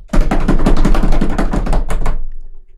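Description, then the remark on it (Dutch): A rapid drum roll of tightly spaced, evenly repeated hits, loud and steady for about two seconds, announcing number 1 in a ranking, then quickly fading out with no voices present. “Dan nu een roffel voor de nummer 1.”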